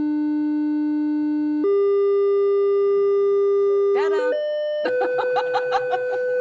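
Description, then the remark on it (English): A steady electronic test tone holds one pitch, then jumps higher in a few distinct steps through set frequencies such as 100, 200 and 300 cycles per second, reaching 500 cycles per second. A voice briefly cuts in, and bursts of laughter sound over the final, highest tone. “we are now at 500 cycles per second.”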